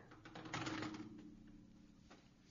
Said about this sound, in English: Sorry, sorry if you heard just drop my phone. So, I just did it again.